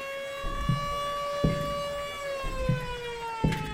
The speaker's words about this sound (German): immer die Sirene. Ja, wenn eben beginnt. und um 16 Uhr, wenn Schichtende war, ging die auch wieder.